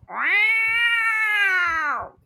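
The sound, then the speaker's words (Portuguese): A person imitates a cat with one long, drawn-out meow, loud. The voice rises, holds steady for about two seconds, then falls away, with no talking around it. “O macho fala, mete um miau”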